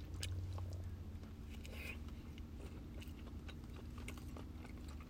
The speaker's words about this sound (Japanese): ちょっと咀嚼音がしますのですみません。